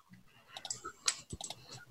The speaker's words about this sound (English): I was busy mm. typing up things.